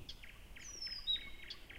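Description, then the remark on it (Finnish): A marsh warbler sings a fast, varied song of repeated chirpy phrases mixed with thin, sliding whistles, clear over a soft background hiss, with no voices. “Tämä lintu on viitakerttunen, 1930-luvun uudistulokas Suomessa Kaakosta.”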